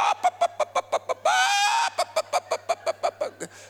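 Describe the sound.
A voice imitates a clucking hen: a quick, steady run of loud clucks, broken by one drawn-out squawk, then more clucking. A faint low hum runs underneath.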